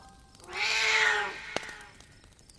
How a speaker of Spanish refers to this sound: Recibí un fuerte maullido a cambio.